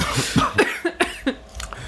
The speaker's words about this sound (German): da muss ich schon husten, da kommt schon die Idee.